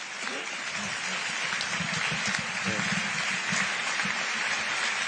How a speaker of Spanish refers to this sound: Burro Javier, que se lleva la ovación Buen tercio de banderillas, el que ha cuajado.